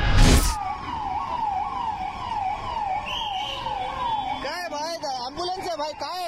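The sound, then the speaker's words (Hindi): An ambulance siren wails in steady rising-and-falling sweeps, then switches to a fast warbling yelp, over a low rumble of idling traffic, opening with a brief loud burst of noise. The ambulance is among vehicles stopped for Amit Shah's convoy near Marol Naka metro station in Mumbai. “ये वीडियो मुंबई के मरोल नाका मेट्रो स्टेशन के पास का है यहाँ से अमित शाह का काफिला जाता हुआ दिख रहा है और उसके दूसरी तरफ कई गाड़ियों को रोका जाता है जिसमें एक एम्बुलेंस भी शामिल है”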